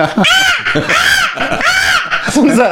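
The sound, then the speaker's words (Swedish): A person loudly imitates a crow, producing three harsh, drawn-out, raspy caws in quick succession, followed by a shorter rough vocal burst. “Så bara, krå, kråkan kommer fram.”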